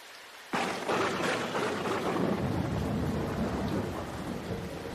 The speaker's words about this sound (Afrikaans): En dit lyk so waar asof 'n klein wolkie hom gehoor het, want daar begin druppels reën op hom val. Dit lyk asof die wolkie huil, maar toe dryf dit weg in die lug.